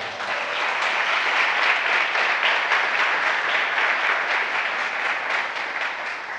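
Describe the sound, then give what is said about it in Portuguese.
A crowd applauds with dense, steady clapping that holds at a fairly loud, even level for several seconds, easing only slightly toward the end, with no voices standing out. “Dá um aplauso aí.”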